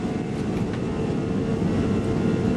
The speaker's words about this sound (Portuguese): Apertem os cintos, coloquem o celular no modo avião e deixem a poltrona na vertical, porque o avião já vai decolar.